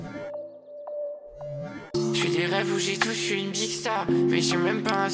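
A song opens with a soft, sustained, gliding synth tone and a few faint plinks, then after about two seconds a loud, full arrangement of steady chords and driving percussion kicks in. No voices.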